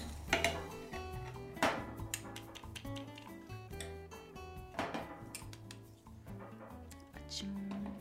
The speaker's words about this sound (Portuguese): Vamos colocar o café na French press, a prensa francesa em português.